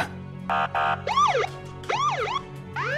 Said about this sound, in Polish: Gdy dojechali pod wskazany adres, powitał ich ryk strażackich syren oraz światła kogutów, które oświetlały mrok paletą biało-niebieskich barw.